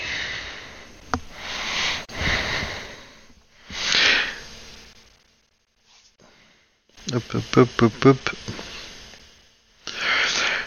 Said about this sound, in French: T'as un clavier qui fait beaucoup de bruit.